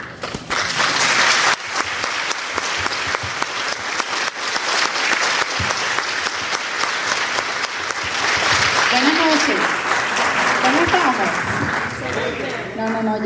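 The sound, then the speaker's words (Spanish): Loud, sustained applause from an audience at a business training session, a dense steady wash of clapping lasting about thirteen seconds, with a few cheering voices rising over it toward the end. “Entonces, para comenzar a explicar esto, quiero que le demos un aplauso bien fuerte y bien caluroso a la mejor parte de mi negocio.”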